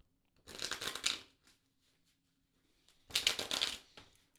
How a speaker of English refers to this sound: All right, everybody, so just take a moment and connect to the cards by listening in to the sound of them being shuffled.